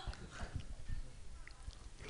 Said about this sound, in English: Did you just snort?